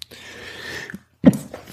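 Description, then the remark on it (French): A single loud sneeze, caused by dog hairs tickling the nose after petting a dog: a drawn-out breathy intake lasting most of a second, a brief pause, then a sharp explosive burst that trails off quickly. No talking. “Excusez-moi, j'ai caressé mon chien et je pense qu'il y a des poils de chien qui m'ont chatouillé le nez et qui m'ont fait éternuer.”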